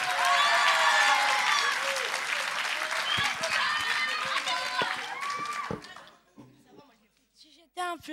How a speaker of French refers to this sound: Et on applaudit bien fort